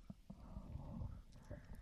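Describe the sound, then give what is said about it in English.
Someone gulps down about three inches of beer suds, a run of quick, wet swallows in steady rhythm lasting under two seconds, with no talking. “I'm gonna hiccup from that. That was about three inches of sud.”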